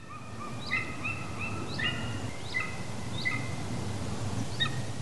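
A golden eagle calls in a series of about five short, high yelping cries spaced irregularly, over a steady low rumble of background noise.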